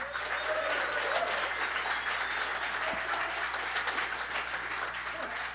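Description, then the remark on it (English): An audience claps steadily for several seconds, a dense, even wash of many hands with no voices rising above it and no break in the applause. “Who what's a sort of show of claps if that is such a thing?”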